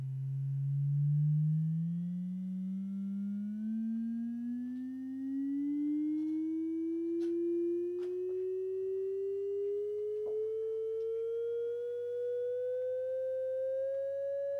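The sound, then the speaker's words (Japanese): A steady pure sine tone glides smoothly upward in pitch over about fifteen seconds, starting low and rising gradually to a higher note, demonstrating that more waves or vibrations give a higher pitch, with faint clicks and a low hum underneath. “波の数が増えていくとだんだんと高くなっていくのがわかると思いますさらに上げていきますこのように高い音が出るということは波の数が増える振動の数が増えるということであります。”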